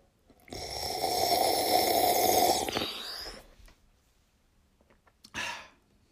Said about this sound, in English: So I'm going to just sip yerba mate into the speaker, if that's all right with you, listeners.